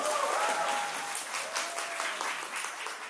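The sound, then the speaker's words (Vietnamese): An audience applauds steadily and loudly to welcome a songwriter onto the stage, a dense crackle of many hands clapping at once, with a few faint whistles or cheers rising briefly above it. “Cho em xin lại cảm ơn tay đúng không ạ?”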